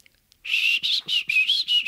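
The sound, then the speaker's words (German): A person whistles while grinning: a series of short, bright, warbling notes, about five bursts in a quick uneven rhythm, fairly loud, with no talking. “Man kann auch beim Grinsen pfeifen, aber wenn ich jetzt pfeife, dann übersteuert alles und dann beschweren sich alle.”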